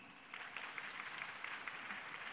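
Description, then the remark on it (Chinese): An audience at a Guan Yin Citta Dharma Door gathering applauds steadily for about two seconds to welcome a practitioner from Singapore, a dense even patter of many hands clapping at moderate loudness that stops abruptly. No voices are heard. “身心健康，心灵法门真实不虚，让我们掌声欢迎！”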